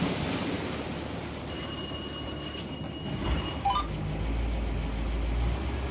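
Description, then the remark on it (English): A fishing boat's Caterpillar V8 diesel engine cranks and catches partway through, a deep low rumble swelling and settling into a steady drone beneath constant hissing wind and water noise, with a faint whine beforehand. “It's the sound of the fishing boat cranking up.”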